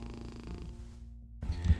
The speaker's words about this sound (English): Today's episode will have the background of my cat purring because uh, she's so cute, and uh, but she always makes this noise like a little little engine that she starts every time we are.